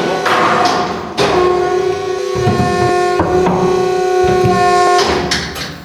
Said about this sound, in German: So, jetzt haben wir komplett die Bunkeranlage verschlossen über diese Drucktüren. Äh, lassen sich jetzt auch nur von innen öffnen.